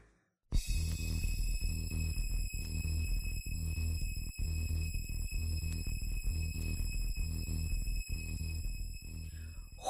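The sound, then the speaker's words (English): A piercing, high-pitched whistle tone holds steadily over a loud, driving techno beat with a pounding bass pulse repeating at a regular pace. No one speaks. “Why dog whistle?”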